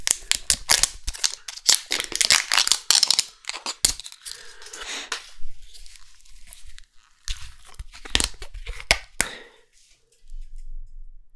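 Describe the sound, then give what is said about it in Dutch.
A crinkly plastic wrapper being peeled and torn off a 500 ml bottle of rooibos red tea, a burst of sharp crackles and snaps for several seconds, then quieter intermittent rustles and a few final crisp crunches. “Er zit een plasticje omheen.”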